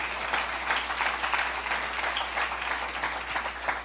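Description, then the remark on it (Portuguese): Steady applause from a crowd applauding Jesus, dense overlapping claps forming a continuous bright crackle that holds at a fairly even loudness throughout, with no voices standing out. “Pode aplaudir Jesus.”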